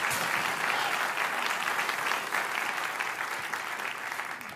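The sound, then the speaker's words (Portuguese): Sustained applause from an audience during a Christian sermon, given for God, a dense, steady wash of many hands clapping at once, loud and continuous throughout without pauses or speech. “Dê para Ele uma forte, forte, forte salva de palmas.”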